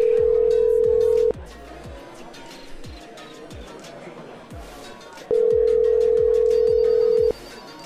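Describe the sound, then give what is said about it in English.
An outgoing phone call ringing: two long, steady, mid-pitched ringback tones, each about two seconds, loud, separated by a four-second pause with faint background noise underneath. “we called that one last time.”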